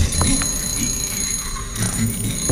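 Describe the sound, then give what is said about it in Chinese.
A telephone rings with a continuous, shrill electronic trill that holds steady for the whole stretch, over a low muffled rumble of background noise. “电话铃声终于停了下来”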